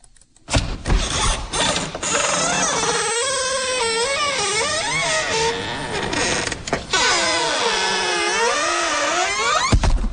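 A squeaky door creaks slowly and continuously for about ten seconds, its high, wavering squeal rising and bending in pitch with rough grinding underneath, loud and eerie with no talking.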